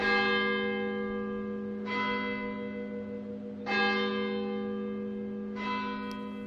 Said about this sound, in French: Dans la nuit du 25, les cloches sonnent la fin des hostilités en France.